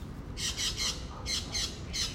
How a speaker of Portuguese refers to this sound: Tem uns que são maiores. Acho que são aqueles maracanãs. Ó, tá ouvindo?